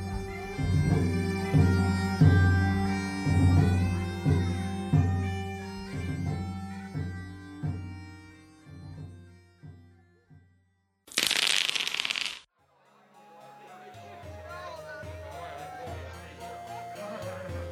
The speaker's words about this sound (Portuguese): Vou chamar aqui agora a vinheta pro próximo bloco.